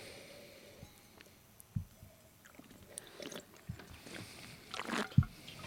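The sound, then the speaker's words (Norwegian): Wet mouth noises of wine being slurped and spat during a tasting: a few short, squishy sucks and splutters spread over several seconds, ending in a louder burst of slurping and a spit. “Og vi spytter. Og vi slurper.”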